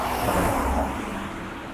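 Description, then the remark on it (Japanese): A single car goes by on a road, a broad rushing hum with low engine rumble that swells briefly and then fades away over under two seconds, with no talking. “まあ、ちょろちょろと車が通るぐらいですかね。”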